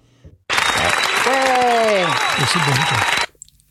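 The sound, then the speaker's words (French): A loud, dense burst of applause lasting under three seconds, starting and stopping abruptly, with a voice cheering over it partway through. “Je vais t'applaudir.”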